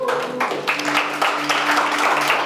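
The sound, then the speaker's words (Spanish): Loud church audience applause for the new group of members of Vástago fills the whole stretch, a dense, steady wash of many hands clapping together with no voices on top, a faint low hum running underneath. “De un fuerte aplauso.”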